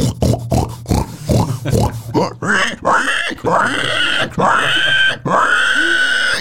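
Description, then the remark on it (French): A person imitates a pig, first with a quick run of rough, rhythmic grunts, then with longer, loud, squealing oinks that drag out one after another. “Putain, tu fais trop bien le porc.”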